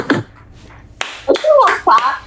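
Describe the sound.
A few sharp, scattered hand claps for a new album, loud and crisp, ring out amid lively talking voices rather than a sustained burst of clapping.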